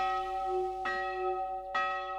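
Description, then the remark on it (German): Church bells of a small village church in Bechtal ring the evening prayer bell (Betläuten) at the end of the working day: two bright strikes about a second apart with long, humming tones sustaining between them, moderately loud with no voices. “Betläuten heißt es hier, trotz Handy und Internet noch immer, wenn die Kirchenglocken zum Feierabend läuten, im Winter um 6, im Sommer um 8 Uhr.”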